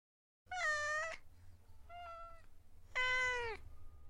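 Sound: cat meowing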